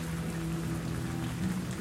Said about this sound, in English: The rain pelted down on me